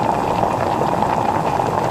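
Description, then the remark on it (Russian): Sauce brought to a boil in a pan with red onion and peppers fried in vegetable oil over medium-high heat, a steady dense bubbling and popping with fine crackling texture, continuous and fairly loud throughout, with no voices. “Затем добавьте туда соус, который мы раньше подготовили, и дайте ему закипеть.”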